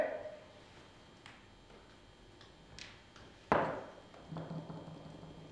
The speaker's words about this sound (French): Et j'entends la porte qui s'ouvre et qui se ferme. Et c'est pas dans le couloir.